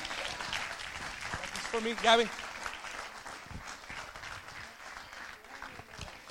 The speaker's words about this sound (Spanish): Alguien que le dé un aplauso fuerte a Jesús.